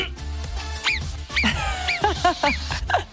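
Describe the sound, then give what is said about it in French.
A person imitates a marmot's whistle with a quick series of short, sharp, high-pitched chirping whistles, fairly loud, over a low background rumble. “est-ce que tu veux entendre le sifflement de la marmotte euh, C'est toi qui le fais ou bien c'est la machine Ah, je peux le faire.”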